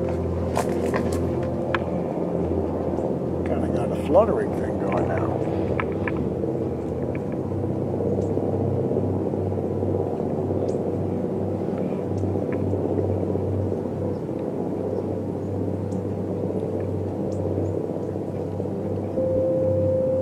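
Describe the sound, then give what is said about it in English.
A helicopter's steady, heavy drone with a low fluttering rotor beat, loud, continuing without a break for the whole stretch. Nobody speaks. “Maybe you could just kind of dig the fluttering sound of the chopper.”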